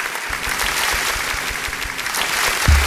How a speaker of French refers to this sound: Voilà, j'avais juste envie de faire un petit peu durer le moment, cet applaudissement.